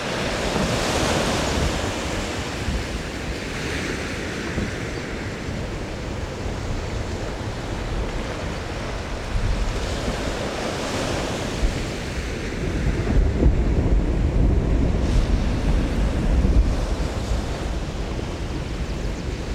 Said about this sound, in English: And the rumble of a huge chunk of ice breaking off a glacier and causing large waves. … recorded this soundscape for his ….